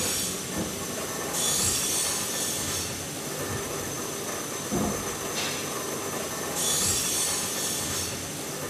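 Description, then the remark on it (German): Busy workshop ambience in a steam locomotive shed in Ebermannstadt, Franconia, on a Saturday morning, where members of the Dampfbahn Fränkische Schweiz club hammer, grease and prepare locomotives and carriages: steady mechanical noise with bursts of high metallic hiss or squeal, occasional knocks and clanks, no talking. “gehämmert, geschmiert im Lokschuppen im fränkischen Ebermannstadt zwischen Nürnberg und Bamberg. Überall in der Werkstatt wird an diesem Samstagmorgen gearbeitet.”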